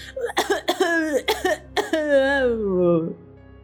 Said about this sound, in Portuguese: Uma tosse. uma tosse.